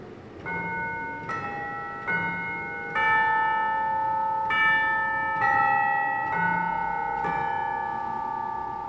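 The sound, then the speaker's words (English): Chimes of a Wurlitzer organ in the Villa Arcade ring out in a slow, stately melody of about eight struck notes, each bell-like tone sustaining and overlapping the next, clear and fairly loud with no voices. “It has chimes here, which would uh, put Big Ben to shame.”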